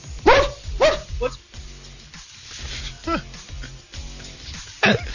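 A dog barks repeatedly in the background in sharp, uneven bursts, several yips spread across a few seconds, behind a low background hum.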